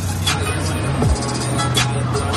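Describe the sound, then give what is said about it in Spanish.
A car drives steadily on the way home, its low engine drone and road rumble running continuously, with a brief sliding tone partway through and a few faint hiss bursts above the hum. “Te dejo que estoy conduciendo.”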